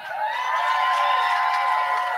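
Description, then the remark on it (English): An audience shouting in praise at a service tonight, a steady, dense wall of many raised voices sustained at an even loudness for a couple of seconds, with no single speaker standing out. “Come on, let me hear you shout again.”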